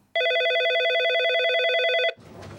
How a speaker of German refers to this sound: Wir kennen das alle. Hier klingelt das Telefon.